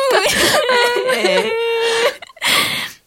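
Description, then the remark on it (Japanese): Someone cries in a wavering, whimpering voice for about two seconds, then pauses and gives a sharp, breathy sniffle. “私も泣いてきた。”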